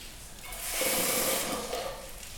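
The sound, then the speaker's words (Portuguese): Water pours into a pot of beans in a short, steady splashing stream that swells and then eases off over about two seconds, with no talking; a little more water is being added to the beans as they cook. “Com mais um pouco de água. Não põe muito para não ficar aquele caldo ralo, aquele caldo fino, sabe?”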